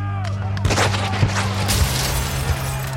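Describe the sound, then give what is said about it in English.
A siege at a courthouse: a cannon fires iron slugs and rifles crack. Several sharp, irregular bangs and heavier booms burst out one after another over a low, steady rumble, fairly loud. “The Fusion Ticket slash Klan Army begins its siege by firing iron slugs with a cannon.”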